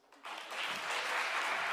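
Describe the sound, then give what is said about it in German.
Applause from an audience rises quickly after a brief quiet start, then holds as a steady, dense wash of clapping with no voices over it. “Komm, wir geben allen, allen einen Applaus.”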